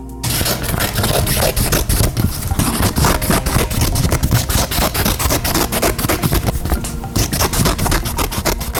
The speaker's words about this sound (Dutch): Eh, iemand die schuurt? Schuurt, zeg jij? Nee. Het was iemand die aan het knippen was.